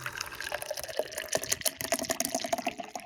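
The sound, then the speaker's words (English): A drink glugs and splashes steadily as it pours from a can, a continuous liquid stream with bubbly gurgles running for a few seconds, no voices. “Pour it out.”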